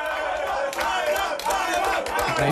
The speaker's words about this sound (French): On, est une équipe et après regardez, ça applaudit.